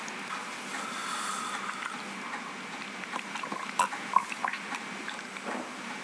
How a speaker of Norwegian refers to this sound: Det er veldig mye drikke- og tyggelyder, som jeg syns var veldig ubehagelig.